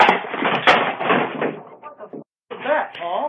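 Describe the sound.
A chair breaks and falls out from under a person with a loud clattering crash and a sharp crack, settling into a few smaller knocks before a short silence and then voices talking.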